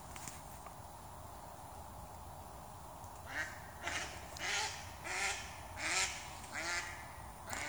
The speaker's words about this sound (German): Ich glaube, die Ente möchte dir das gleich wünschen.